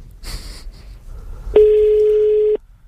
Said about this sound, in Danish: Det kan være, han tænker, okay, de ringer to gange. Det, det må være vigtigt.